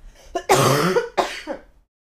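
A person coughs in a few harsh bursts: a short catch, a long raspy hack, then a second rougher cough trailing off into a throaty breath before silence.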